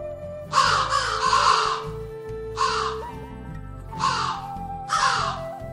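Crows caw in a series of harsh, raspy calls, several bursts a second or so apart, the first ones overlapping, over a soft sustained musical background.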